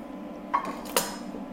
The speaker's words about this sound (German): Und dann? Dann stellen wir uns eine Pfanne auf.